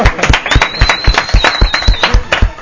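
Applause of steady, rhythmic hand claps, sharp and fairly loud, continuing for a few seconds with a thin high whistle-like tone running over the middle of it; no talking.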